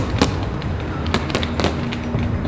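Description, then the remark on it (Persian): Sharp firecracker bangs pop out over a steady background rumble, several cracks scattered irregularly with a couple bunched together, each a brief loud snap, as firecrackers are set off across a city. “صدای ترقه بازی شهر را برداشته بود”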